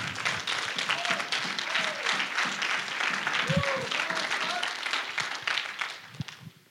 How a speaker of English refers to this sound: So y'all, uh, y'all, y'all show some honor. Give it up